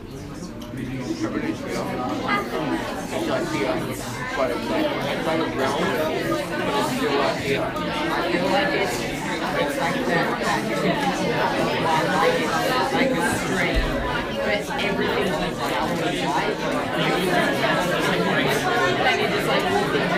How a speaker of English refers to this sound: Why don't you just chat to the person next to you quickly? What do you think of when you think of heaven?